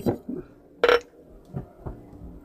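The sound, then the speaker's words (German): A single bright clink of glass rings out sharply in the middle, surrounded by a few soft thuds and low murmurs, as glasses of freshly served cold drinks from the Paulaner im Tal are tapped together for a toast. “Äh, darauf ein Prost.”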